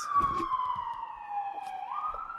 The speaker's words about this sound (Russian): Скорая помощь. Антураж.